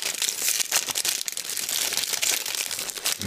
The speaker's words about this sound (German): Aroma verschweißt, 40 Teebeutel. Und ich, ich kann nicht anders, ich muss das jetzt öffnen. Das muss ich. Ah, es raschelt sehr, es tut mir leid. Moment, ich, ich öffne das jetzt und dann rede ich weiter.